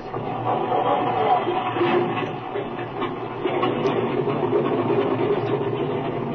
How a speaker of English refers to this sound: Okay, Speed, I believe we're all set. Let's get going. The engine's been warmed up already. All right, kid, turn it loose.